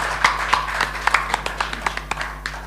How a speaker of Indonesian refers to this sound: Baik, kita berikan aplaus yang meriah kepada kedua paslon yang sudah siap saat ini. Paslon nomor satu sehat, semangat. Paslon nomor dua sehat, semangat. Kita kasih tepuk tangan lagi, kasih semangat lagi.